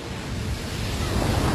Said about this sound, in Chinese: 浪头如挺进的先锋，翻卷的浪头高出海面数十丈。 海浪紧随其后，哗哗哗的一浪高一浪，勇往直前，